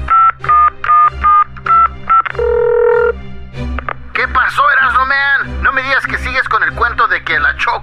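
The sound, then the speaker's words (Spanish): A quick series of telephone keypad dialing beeps, evenly spaced and clear, followed by a longer steady tone, then a burst of busy warbling, chattering sounds. “Márcale al migra.”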